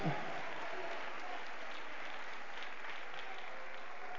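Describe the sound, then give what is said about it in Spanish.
A church audience claps steadily and densely for several seconds in praise of the Lord, a continuous wash of many hands applauding with no clear individual beats, holding at an even level throughout. “Un aplauso de alabanza para el Señor.”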